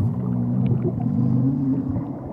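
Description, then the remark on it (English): A deep, continuous stomach growl from a hungry sea star near lunchtime rumbles steadily for a couple of seconds, low and fairly loud with a wavering, groaning tone and no voices present. “Well, it's almost lunchtime, and it sounds like we're hungry.”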